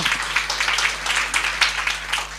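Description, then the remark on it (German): An audience applauds steadily, many hands clapping at once into a dense, crackling wash of sound that stays fairly even in loudness for the whole stretch, with no voices on top. “Gebt denen mal einen Applaus.”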